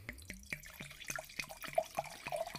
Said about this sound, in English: y'all probably thinking, "Damn, how much glad, how much wine is she pouring?" Mind your business.